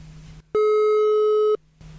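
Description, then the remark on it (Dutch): A single loud, steady telephone ringback tone while a call is placed to reach someone, a flat electronic hum lasting about a second before cutting off, with quiet background noise on either side and no talking. “ik ga eens kijken of we Tom, kunnen, Tom kunnen bereiken. Het staat hier iets te hard.”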